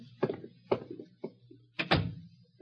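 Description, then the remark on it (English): The door to a room is closed: three light clunks and rattles in quick succession, followed by a heavier, fuller thud as it shuts, with no one talking. “I'll close it.”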